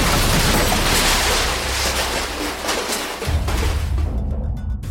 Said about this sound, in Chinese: 小心啊！接着就是一阵震耳欲聋的爆炸声。